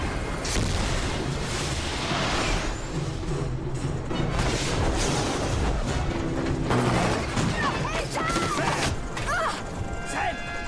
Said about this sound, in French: Les mecs, ils nous balancent un autre missile